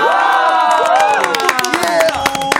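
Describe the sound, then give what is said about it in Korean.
Loud crowd cheering and shouting with bright, swelling tonal lines like a celebratory fanfare, scattered claps and whoops punctuating the steady roar for a few seconds; a fanfare sound effect played to celebrate a music group's comeback. “자, 그러면 일단 빵빠로 좀 올리도록 하겠습니다.”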